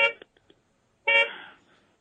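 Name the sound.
car horns honking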